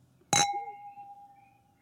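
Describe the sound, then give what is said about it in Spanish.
A single sharp clink of glasses touching in a toast, then a clear, bell-like ring that lingers and slowly fades over about a second and a half, with no voices. “Eh, bueno, y como ya es de costumbre, vamos a hacer nuestro brindis.”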